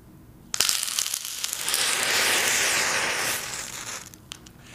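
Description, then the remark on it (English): A mixture of potassium chlorate and sugar, touched with a drop of sulfuric acid in a chemistry demonstration, flares up with a sudden burst, then a loud, steady hissing and crackling roar that lasts about three seconds before fading into a few scattered crackles. “I shall touch them with a drop of sulfuric acid for the purpose of giving you an illustration of chemical action, and they will instantly burn.”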